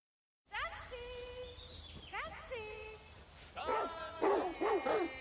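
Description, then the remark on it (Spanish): Two hunting dogs bark and yelp excitedly as they run ahead through a forest in a Game of Thrones scene, a run of high, whining cries rising and falling in quick succession, growing louder toward the end. “Dos perros de presa van delante de ellos.”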